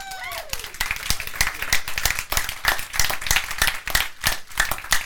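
A group claps steadily for about five seconds, dense overlapping hand claps forming lively applause. A brief falling cheer rises over the start, then fades.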